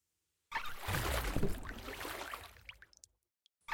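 Oars row a small boat carrying two people across a pitch-black sea, sweeping through the water in one long swishing stroke with a low churning wash, trailing off into a few small drips and splashes. No one speaks.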